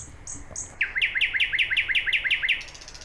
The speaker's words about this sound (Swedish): Och sen både för sydnäktergal och, och vår näktergal då, så är det en kraftig och påtaglig sång och den har onekligen röstresurser den lämnar ingen oberörd.